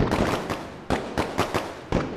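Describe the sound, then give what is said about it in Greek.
Fireworks bang in a rapid, irregular series of sharp cracks over a steady crackling hiss, some bursts landing close together and a few standing out louder. No one speaks. “τα πυροτεχνήματα μα αρέσουν, ρε παιδί μου, γενικά.”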